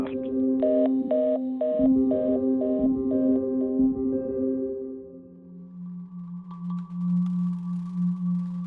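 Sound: telephone call hanging up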